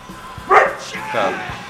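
A dog, Marty, barks twice, two short, sharp woofs about half a second apart, clear over a faint background hum.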